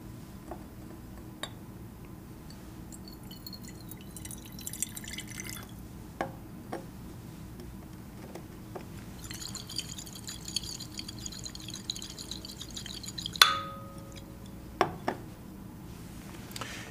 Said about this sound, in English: If I take some of this beautiful, clear lime water and pour it into this flask which has collected the gas from the candle, you will see a change come about.